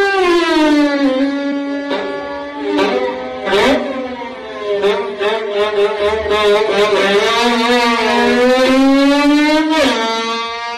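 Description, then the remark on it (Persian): A violin mimics a revving motorcycle engine, its bowed tone sliding up and down in pitch with sharp accents, loud, played alone for about eleven seconds. “یا مثلا تولید صدای موتور با ویولون و یه هنرنمایی خلاقانه”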